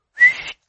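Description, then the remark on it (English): A single short, sharp whistle, the kind used to call a dog back, rising quickly and then trailing off with a breathy edge. Fairly loud, with no talking. “It's the dog whistle. You know the dog whistle?”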